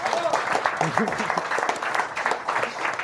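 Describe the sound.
An audience claps steadily for about three seconds, a dense, even wash of many hands at a fairly loud level, with a few voices calling out briefly in the mix. They are applauding a member of the Jean Actu team who made the armchairs.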